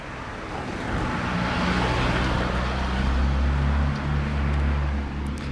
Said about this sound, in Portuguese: Antes desse carro parar, a gente estava ouvindo uma rolinha ao fundo.